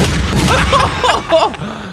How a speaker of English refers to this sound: Can't hear anything over the sound of those gunshots.